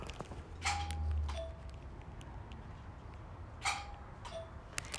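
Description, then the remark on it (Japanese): A two-note ding-dong doorbell chime at the front entrance of a house rings twice, a few seconds apart, each bright high tone followed by a slightly lower one, over a steady low background rumble. “こういうピンポンでした。”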